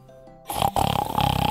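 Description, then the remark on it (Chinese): A voice reading a children's farm story imitates a pig shouting hard: a quiet lead-in, then a loud, rough, rasping snort-like burst with a brief break, continuing in pulsing, throaty grunts. “猪在使劲喊”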